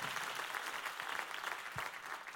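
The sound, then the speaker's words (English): An audience bursts into steady, dense clapping, many hands overlapping into a continuous bright patter at an even volume throughout, with no voices standing out. “Come on, clap today if you want to grow in respect.”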